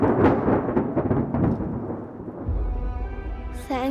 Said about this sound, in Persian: آن شب ناگهان صدای قررش ترسناکی از کوه برخاست